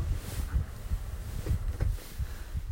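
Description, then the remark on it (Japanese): An electric fan runs, giving a steady low whooshing rumble with slight fluctuations of air buffeting; no one speaks. “扇風機つけたら音入ってんのかな”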